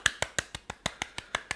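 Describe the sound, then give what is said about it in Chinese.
Around ten quick hand claps, done by the host himself to welcome a guest on a mock interview show, in a steady, fast rhythm, each a sharp crisp smack, with no talking underneath. “干，没有没有经费，还要自己手动拍手啊？”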